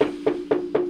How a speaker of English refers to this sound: I've had tweaker neighbors upstairs, and they'll decide to do their fucking shit fucking at two in the morning, and then all of a sudden I'll get woken up by a knock on the wall, like bam bam. It just sounds like this.